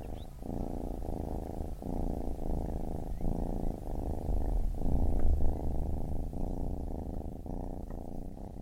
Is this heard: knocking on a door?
no